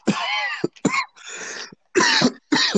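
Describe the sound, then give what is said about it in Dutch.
A person, probably with COVID, gives a run of heavy, barking coughs, about five harsh bursts in quick succession with short gaps, loud, with no talking. “Vet hoesten. Als je moet blaffen ondertussen, je weet.”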